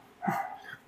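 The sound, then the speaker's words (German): A single short, high-pitched bark from a small dog, muffled as if coming from outside, followed by quiet background. “Man hört an, am Bellen, dass ein kleiner ja. Hund ist”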